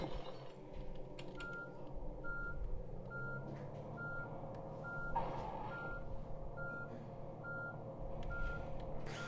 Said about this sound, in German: Hallo, Bus, schalte hoch. Äh, vielen herzlichen Dank, lieber Bus, fürs Hochschalten.